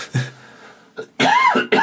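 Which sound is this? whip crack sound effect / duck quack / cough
cough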